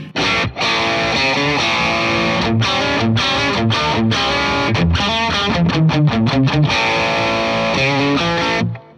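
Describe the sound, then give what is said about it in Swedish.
A distorted electric guitar plays through an effects pedal being tested, with all its knobs set at 12 o'clock except the volume at 10, giving loud, sustained chords and quick choppy bursts separated by brief gaps, the tone thick and saturated with a slight warbling effect. “Pedaltest”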